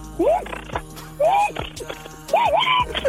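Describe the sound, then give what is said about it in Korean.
On Park Myung-soo's Radio Show, a voice imitates an impact wrench tightening tire nuts after a tire change: three loud bursts of buzzing, rattling whirr with rising and falling pitch, separated by short pauses. “타이어 갈고 나서 이제 조일 때 들어볼게요.”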